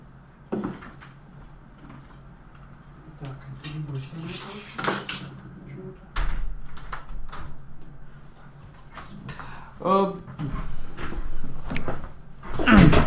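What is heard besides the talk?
window being closed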